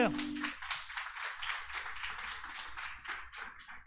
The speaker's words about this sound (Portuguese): Vamos para o nosso momento semeando com alegria? Aplauda o Senhor aí.